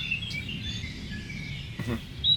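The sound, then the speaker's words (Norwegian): Birds sing softly in a forest, thin whistling chirps drifting in and out over a steady low rumble of ambience, with no voices. “Kan De høre fuglenes vakre sang?”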